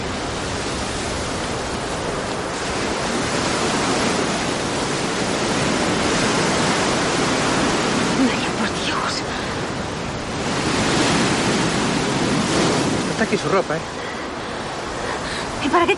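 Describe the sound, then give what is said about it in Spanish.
Heavy ocean surf roars steadily, with strong waves building and crashing onto the beach in repeated loud surges over a constant hiss of churning water. “Hay un fuerte oleaje.”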